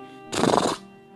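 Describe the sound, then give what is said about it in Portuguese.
A single short zebra neigh, a loud, rough, half-second bray-like whinny that bursts out and stops abruptly, with a faint steady tonal hum underneath and no talking. “zebra relinchou.”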